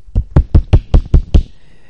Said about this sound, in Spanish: Quien no lo haya oído bien, eso he intentado hacer un aplauso con el canto de la mano, pero con el micrófono no he podido hacerlo muy eficazmente.